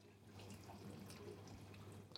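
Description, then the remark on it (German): A dishwasher running in a home kitchen, with a steady low motor hum under continuous swishing, spraying water and occasional soft splashes, fairly quiet and unbroken, with no voices. “Es ist eine Spülmaschine.”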